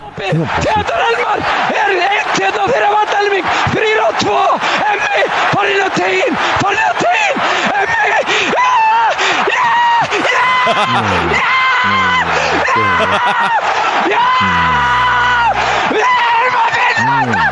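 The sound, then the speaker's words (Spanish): An Icelandic television sports commentator screams frantically over the goal that gave Iceland its historic qualification, his voice loud, hoarse and relentless for the whole stretch, pitch swooping up and down in long excited bursts with barely a pause for breath. “para mostrarles también a los oyentes de esa clasificación histórica de Islandia al narrador deportivo de la televisión de Islandia, cómo gritó ese gol literalmente que les dio la clasificación.”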